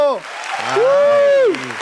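Studio audience applause welcoming a guest on a talk show, a steady wash of clapping with a drawn-out cheering shout that rises and falls over it for about a second.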